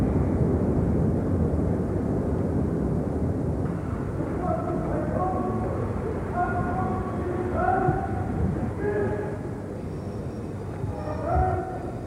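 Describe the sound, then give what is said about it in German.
A special train from Warsaw to Berlin rolls slowly into a large echoing station hall, its steady low rumble joined by squealing brake tones that rise and fade as it comes to a halt. “Der Sonderzug Warschau-Berlin läuft in die Bahnhofshalle ein.”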